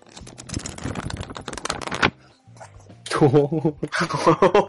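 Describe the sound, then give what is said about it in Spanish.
Crisp, papery rustling and flicking for about two seconds as a stack of handwritten thesis sheets is handled and shown, followed by a short pause and then people talking. “Son hojas.”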